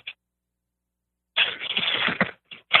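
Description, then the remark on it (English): Rapid keyboard clicking in a dense, clattering burst of about a second, followed by two shorter flurries of keystrokes after a brief pause. No voices are heard. “Keyboard, sorry.”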